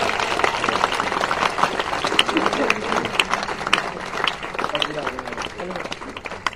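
Audience applause at a convention: a steady wash of many hands clapping for several seconds, dense and fairly loud, with some crowd murmur mixed underneath.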